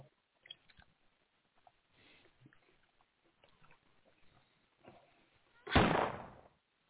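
A single loud gunshot bursts out near the end, cracking sharply and then fading over a fraction of a second, after several seconds of quiet clicks and faint rustling.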